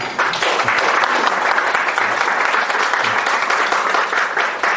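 A crowd applauds steadily and loudly for about five seconds, a dense wash of many hands clapping with no pauses and no voices standing out, applauding lawmaker Lee Haeng-ja at a Seoul Metro labor union event.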